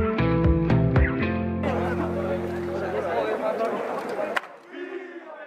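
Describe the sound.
A loud, agitated crowd of many FC Barcelona football fans shouting and chanting together as they invade Camp Nou, the club's home stadium, with raised cries rising over the roar before it briefly quiets near the end.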